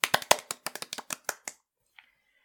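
A quick burst of about a dozen sharp hand claps in an uneven rhythm, fairly loud, fading out after a second and a half, with a faint tap afterward.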